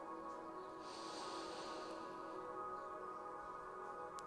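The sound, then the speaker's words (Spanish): One slow, deep inhale drawn through the nose during a deep-breathing exercise, filling the abdomen, a soft airy hiss lasting about a second against a quiet, steady background with no talking. “empezamos a hacer tres respiraciones profundas inhalando por la nariz, exhalando por la nariz.”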